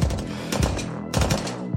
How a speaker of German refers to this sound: Die Schüsse, die dein guter Freund Speed gehört hat, hörst du auch, nur wesentlich lauter, weil sie aus den Waffen von den Wachen kommen, die gerade auf euch zielen.